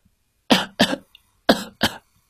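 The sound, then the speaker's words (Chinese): Four sharp coughs in two quick pairs, each a loud, harsh burst, with a short pause between the pairs and silence around them. “咳嗽的声音是在告诉我们，有感冒病毒正在入侵我们的身体。”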